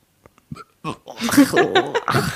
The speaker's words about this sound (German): Also normalerweise schneide ich meine Rülpse raus, aber den lasse ich jetzt drinnen.